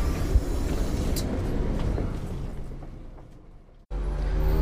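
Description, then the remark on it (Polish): A bus rumbles in, its heavy low engine noise slowly settling as it pulls up, then an abrupt break before the loud idling drone resumes. No one speaks. “No, a resztę powiem później, bo mi przyjechał autobus.”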